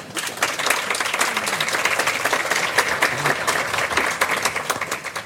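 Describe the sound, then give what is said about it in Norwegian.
An audience applauds steadily for about five seconds for Hanne Skartveit, political editor of VG, a dense wash of many hands clapping at a fairly even loudness, with no one speaking over it. “Godt gi henne en liten applaus.”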